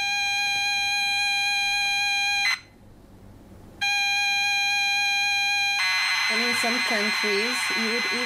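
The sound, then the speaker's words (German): The mini speaker of a Chip 03, a retro computer built in Romania, screeches loudly while loading a game: a steady, harsh electronic tone, a short gap, the tone again, then a warbling, chirping burst of data noise. “Der Lärm des Mini-Lautsprechers ist durch keinen Knopf zu zähmen.”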